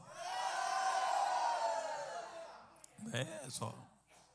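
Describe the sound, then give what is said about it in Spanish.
A large audience of Mexicans, Guatemalans and Salvadorans at a religious service erupts in loud, sustained shouts and joyful cries for a couple of seconds at the preacher's call, then fades as a single voice begins speaking over the dying cheers. “Allá los mexicanos, yo les cedemos un grito de júbilo, los mexicanos gritan, los guatemaltecos gritan, los salvadoreños gritan. Deme un grito de júbilo.”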